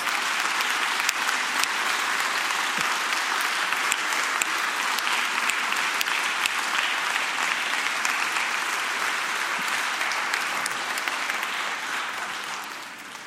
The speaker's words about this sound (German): Wer wirkt irgendwo mit? Und jetzt bitte ich um einen fetten Applaus.